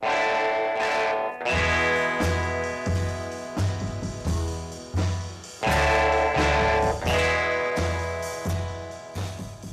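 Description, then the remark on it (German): A gritty, distorted electric guitar plays loud, ringing sustained chords over a steady low pulsing rhythm, with a rough, buzzing edge to the tone and no voices, played through a guitar amplifier whose speaker membrane was perforated with a pen. “So perforiert er kurzerhand die Membran des Lautsprechers seines Gitarrenverstärkers mit einem Stift. Derart präpariert nimmt er den Instrumentalhit … auf.”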